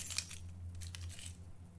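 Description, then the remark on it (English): A soft, brief jingle of car keys being pulled from a pocket, light metallic clinks clustered at the start with a few quieter rattles after, faint over a steady low hum. “He reached into his pocket and withdrew his car keys, jingling together softly.”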